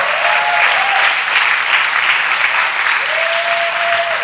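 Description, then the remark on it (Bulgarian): An audience bursts into steady, dense applause in praise during a sermon, many hands clapping loudly and continuously for several seconds, with a faint tonal whistle or feedback hum briefly rising above the clapping. “О, ако искаш да ръкопляскаш, ръкопляскай.”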